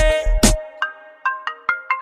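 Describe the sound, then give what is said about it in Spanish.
A mobile phone ringtone chimes a quick electronic melody of bright, repeating tones, fairly loud, following a few brief thumps at the start. “Apaga el celular.”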